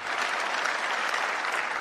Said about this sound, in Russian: много раз прерывали овациями.